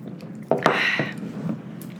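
Wet, squishy chewing: a sudden moist bite followed by about a second of soft smacking and squelching, then quieter mouth noises. Nobody speaks.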